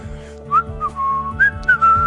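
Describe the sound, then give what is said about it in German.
Someone whistles a short, teasing tune: about six quick notes, some sliding and one held longer, with a faint low hum underneath and no talking. “Provozierendes Pfeifen, dass ich nicht mal Eintracht schreibe.”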